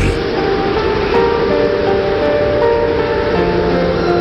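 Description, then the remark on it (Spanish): A loud, steady roar of stormy sea waves and gusting wind battering a small boat on the high sea during a terrible storm at night fills the scene without pause, with faint sustained musical tones drifting over the churning noise. “El pequeño barco era golpeado insistentemente por las olas y el viento.”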